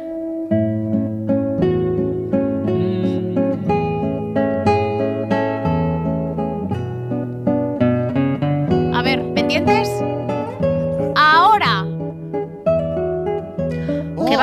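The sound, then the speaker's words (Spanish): The original song behind the Nokia 3210 mobile phone ringtone plays loudly and continuously for the whole stretch, with sustained harmonic notes and a wavering, vibrato-rich voice or lead line rising in the middle. “que da rabia lo que han hecho con una canción tan bonita.”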